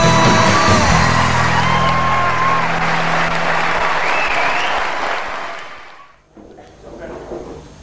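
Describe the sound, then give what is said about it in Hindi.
Loud, dense applause from a large seminar audience welcoming speaker Sandeep Maheshwari, with scattered whoops and yells, sustained for about five seconds before fading out; afterward a voice begins speaking. “So please give an energetic and warm welcome to the one and only Sandeep Maheshwari.”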